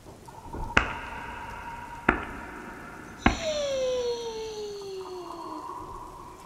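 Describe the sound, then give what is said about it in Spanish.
Three sharp knocks on a door, spaced more than a second apart, over a steady electronic tone; after the last knock a gliding pitch slowly sweeps downward. “Cuando iban en el tercer intento de invocación, golpearon la puerta.”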